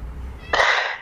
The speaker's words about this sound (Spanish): Bien, yo voy a buscar al gato que está llorando en la puerta.